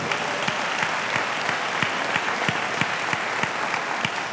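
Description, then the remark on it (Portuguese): An audience applauds Christ during a sermon, a dense wash of many hands clapping with a faint regular beat running through it, sustained at an even, fairly loud level without any voices. “Você pode aplaudir esse Cristo maravilhoso.”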